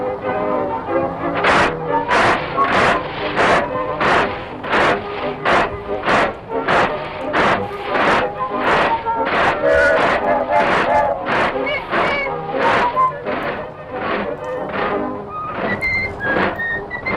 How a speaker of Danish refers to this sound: Det er Steamboat Willie fra 1928, og den fløjtende mus, det er selvfølgelig Mickey Mouse.